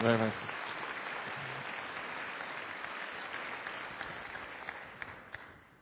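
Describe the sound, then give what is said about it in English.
An audience breaks into sustained applause for mothers, a dense, even wash of many hands clapping that holds steady for several seconds before gradually thinning out toward the end. “Let's applaud for mothers, just in case I offended anyone.”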